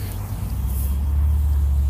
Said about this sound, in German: So, jetzt muss ich hier einmal über diese Hauptstraße. Das ist jetzt einmal ein bisschen Verkehr hier.